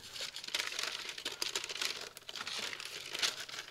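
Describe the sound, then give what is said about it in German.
Baking paper crinkles and rustles continuously for a few seconds as melted chocolate is poured onto it, a bright, irregular crackle with small sharper bursts scattered throughout, moderately loud, with no voices. “Wenn dann die Schokolade geschmolzen ist, kippen wir sie aufs Backpapier.”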